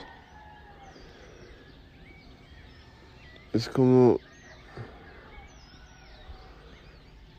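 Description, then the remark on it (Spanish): Faint birdsong and scattered chirps carry on steadily in the background of a quiet morning in a small village in Tepoztlán, Morelos, Mexico, during the rainy season, while a person briefly speaks a few words over it. “pues con estos sonidos de estas aves, estos pájaros”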